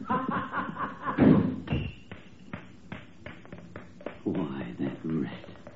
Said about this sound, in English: That dirty double crosser. Did you hear him slam that door? Trying to make me jump and knock these ashes off.